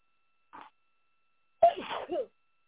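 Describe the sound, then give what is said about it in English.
A brief soft intake of breath, then a sudden loud sneeze, a sharp explosive burst trailing into a short voiced tail, with nobody speaking. “Excuse me, everybody. I'm about to”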